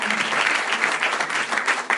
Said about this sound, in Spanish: Un aplauso inmenso para él por creer cuando nadie creía.